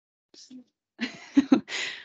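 Several short, breathy nasal sniffs, a couple of faint quick ones followed by stronger ones and a longer final inhale through the nose, with a small vocal murmur in between.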